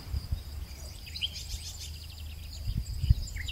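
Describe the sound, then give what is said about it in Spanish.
Faint birdsong: scattered high chirps and twittering calls drift over a low, steady outdoor rumble, with a soft insect-like trill in the background and no one talking. “Es cuando estoy rodeada de árboles, de plantas, de vida, cuando disfruto el sonido del viento o del que hacen los pájaros al cantar”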